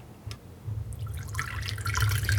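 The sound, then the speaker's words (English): Coffee being poured into a cup, a brief drip first, then a steady splashing stream that grows fuller and louder over about two seconds, with no one talking. “I'm pouring it right now.”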